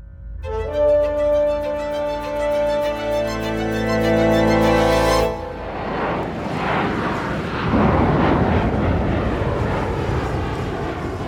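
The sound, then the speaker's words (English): A steady, droning passenger plane engine hum gives way to a loud, rushing roar of the plane flying south over Washington state in a storm on November 24th, 1971, with rumbling wind noise throughout and no voices. “A passenger plane flies south over Washington state.”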